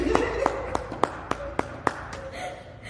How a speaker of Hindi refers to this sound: तो बहुत होशियार हो इसके लिए फिर से ताली